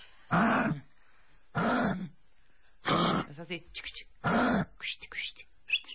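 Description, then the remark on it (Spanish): Four loud, guttural grunts imitating an Australian kangaroo, evenly spaced about a second apart, apparently voiced by a person, with brief bits of speech between the later ones. “Ok, ¿quieren ver cómo, cómo hace un canguro y cómo suena un canguro australiano?”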